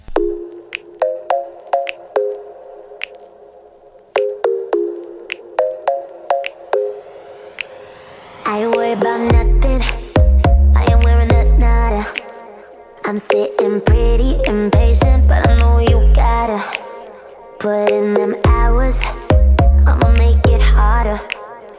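A pop song with female group vocals starts with a sparse, plinking synth intro, then a heavy bass-driven beat kicks in around the midpoint, loud and upfront, with the full arrangement dropping out briefly between sections.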